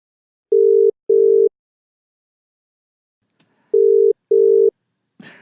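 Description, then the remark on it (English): A telephone ringback tone sounds as a call is placed: two steady double-pulse rings, clear and prominent, separated by a pause, with a faint click before the second and a brief rustle at the end. “So I'm going to see if I can get her on the line.”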